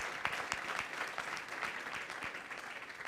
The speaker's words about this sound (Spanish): Por favor, déle ese fuerte aplauso al Rey de Reyes.